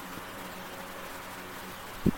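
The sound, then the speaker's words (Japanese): An electric fan drones steadily indoors throughout, a soft, even whir with a low hum underneath, quiet, ending with a brief muffled bump. “扇風機がうるさくてすいません。”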